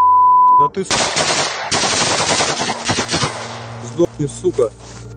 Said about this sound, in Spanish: Segundos después, recibe numerosos disparos con armas automáticas.